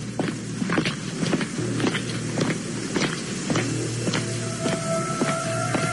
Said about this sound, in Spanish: La habitación se oscureció pasos muy apresurados y marcados se escucharon fuera del cuarto.